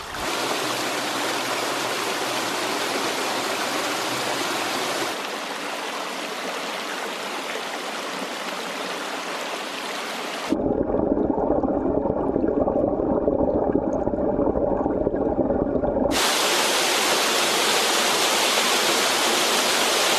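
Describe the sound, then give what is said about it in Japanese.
Steady rushing of the clear Fupu River flowing through Yorii, Osato District, Saitama Prefecture, Japan, one of the 100 Selected Famous Waters. Fairly loud, the water's tone shifts between a soft hiss and a heavier, fuller churn across several sections. No voices. “今朝は名水百選、フープ川の涼しげな音色。”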